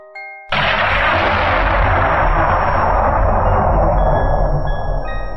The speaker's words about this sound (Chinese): 开开，你刚刚怎么知道要打雷了呢？ 因为我看到闪电了呀。